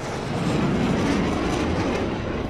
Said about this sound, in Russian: Уже в середине дня истребители начали постоянно носиться над центром Киева, но мы даже не знали, чьи это самолеты, украинские или российские.